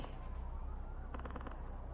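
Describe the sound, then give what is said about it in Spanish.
A low, continuous rumble of an explosion in a building in Ciudad Juárez, with a quick burst of rapid popping partway through as projectiles are launched from another building. The sounds are muffled and fairly quiet, with no voices. “lanzan proyectiles desde un edificio y en otro se produce una explosión.”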